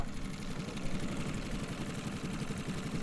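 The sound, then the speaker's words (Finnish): A running engine that nearly jumps loose as it jolts rumbles steadily, a low, rough churning drone that holds at an even level throughout, with no voices over it. “Se, se näytti, Pomppas melkein koko vitun moottori tossa.”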